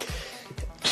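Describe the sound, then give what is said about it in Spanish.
A sharp sneeze bursts out at the end, preceded by a couple of short breathy intakes and throaty sounds. There's no talking, just the quick nasal build-up and release. “Salud, salud.”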